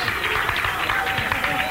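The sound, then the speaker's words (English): An audience applauding at Jim White's send-off at the Summit, broadcast live on KMOX radio: a steady, dense patter of many hands clapping at a moderate level throughout, with a murmur of crowd voices mixed underneath. “It's the uh, Jim White send off, and not really much of an applause for people that didn't pay for anything tonight.”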